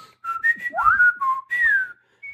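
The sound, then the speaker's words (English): Someone whistles a quick series of sliding, chirpy notes, rising and falling like a playful conversation, imitating the chatter of small puppet creatures talking to each other. “people whistling so, at each other for half an pink, hour.”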